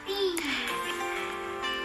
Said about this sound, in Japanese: えー、バックに子供の声がついていますがゆるくお届けしますうるさいですね